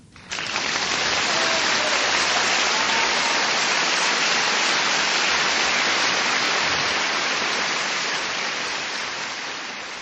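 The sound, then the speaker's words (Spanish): Loud, dense applause from a crowd for maestro Sabines, a steady wash of many hands clapping that holds for about ten seconds and eases slightly at the end, with no voices over it. “Después de este atronador aplauso al maestro Sabines, de nuestros extras aquí en cabina, bueno, vamos a continuar charlando.”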